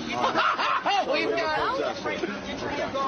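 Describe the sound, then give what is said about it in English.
An excited young male dog barks and yips in quick, overlapping bursts, fairly loud, over a constant background of chattering voices. “We've got, a very excitable young man.”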